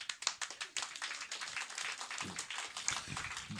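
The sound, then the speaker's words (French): An audience claps for a few seconds in answer to a question asking who knows Chuck Norris, with scattered claps merging into a steady patter of applause that stays moderately loud throughout. “par applaudissement, qui connaît Chuck Norris?”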